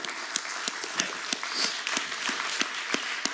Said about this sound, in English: Yeah, go ahead and clap to him.